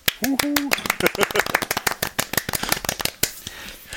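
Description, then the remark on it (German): A rapid, irregular run of sharp, crisp claps into the front of the palm, given as applause to welcome a returning guest, continues for several seconds, with a short vocal sound at the start and faint voices underneath. “Ich habe nur vorne in die Handfläche geklatscht.”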